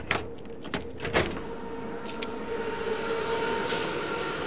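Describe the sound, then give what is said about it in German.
A few sharp metallic clicks and rattles as the device's key unlocks its door and a small latch releases, followed by a low steady mechanical hum from the device's motor, which draws in air through a pipe. No one speaks. “Das ist der Schlüssel von das Gerät, sodass du es sehen kannst.”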